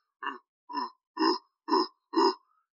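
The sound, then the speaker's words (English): Five deep, throaty grunts from a huge ape-like creature whose face is 15 to 20 centimeters away, evenly spaced about half a second apart, fairly loud, with nothing else in the background. “Is the sound you're hearing as you slowly open your eyes and see this ape-like creature just hovering over you,”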